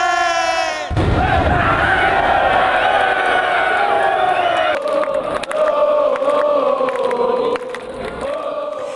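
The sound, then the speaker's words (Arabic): A loud, dense crowd of AC Milan football fans roars and cheers, celebrating the club winning the Italian league title after more than a decade, a sustained wall of shouting voices with rising chants and whoops that carries on without pause. “احتفالات كبيرة يعني يستحقها للأمانة آه، جماهير أي سي ميلان هذه الجماهير المعروفة بولائها لهذا النادي الذي ابتعد سنوات آه، أكثر من عقد من الزمن عن لقب الكاتشو”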